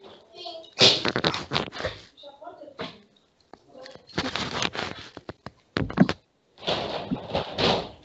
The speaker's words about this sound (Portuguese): Fecha-me essa porta